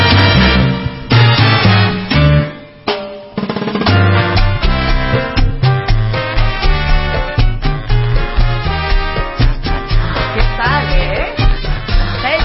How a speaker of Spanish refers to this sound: ¿te puedo presentar una canción ahora yo a ti?